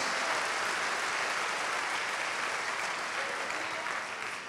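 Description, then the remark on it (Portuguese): Sustained applause from an audience applauding for Jesus, a dense, steady wash of clapping that holds at an even loudness for several seconds before easing slightly at the end. “Vá, aplauda, aplauda, aplauda a Jesus.”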